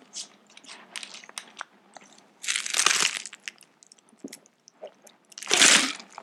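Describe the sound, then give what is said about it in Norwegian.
Ice cubes clink and rattle against a glass as water is poured into it, with scattered sharp clicks and two louder, longer bursts of clattering and splashing. No one speaks. “Dere hører isklumpene, så ikke, så ikke går med og si ja, isklumpene har noe veldig godt.”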